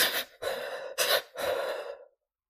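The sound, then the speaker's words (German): A voice imitates the shuddering breaths of a child calming after crying, demonstrating a calming breathing technique: a few quick, jerky gasping inhales followed by one longer, trailing breath out, fairly soft, with no talking. “Ja, ganz plastisch sieht man das zum Beispiel bei Kindern, die sich damit vom Weinen beruhigen.”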